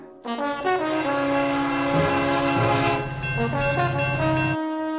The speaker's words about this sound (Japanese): The train's just arrived.